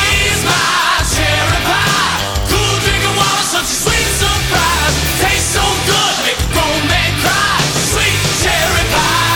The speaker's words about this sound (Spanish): Estribillo, coreable, cantable, gritable.